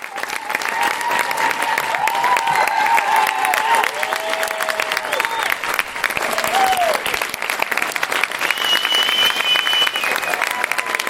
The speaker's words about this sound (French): Une véritable ovation, tout le monde s'est levé, des applaudissements qui ont duré plus de 5 minutes. Un véritable cri du cœur collectif.